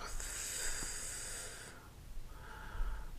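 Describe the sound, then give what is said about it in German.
Deep breathing in and out to relax: a long, airy breath of about a second and a half, a short pause, then a second softer breath. No one speaks. “Indem man ganz tief ein- und ausatmet.”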